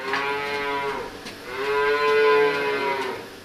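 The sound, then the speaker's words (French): Cows moo loudly in a cattle barn, two long drawn-out calls, one after another with a brief pause between them, with no talking. “Dans l'étable, seule l'une d'elles est affublée d'une drôle de coiffe pour la démonstration.”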